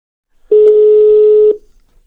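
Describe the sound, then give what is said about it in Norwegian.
A single steady telephone ringing tone sounds for about one second as a call is placed to a person, a clear, loud, unbroken hum that starts and stops abruptly, with no voices around it. “Vi ringer han, gjør vi ikke da?”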